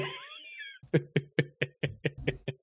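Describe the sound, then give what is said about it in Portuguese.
A kitten meows: a rapid run of about eight short, evenly spaced meows, fairly loud, after a brief high-pitched squeal; no one speaks. “É o gatinho.”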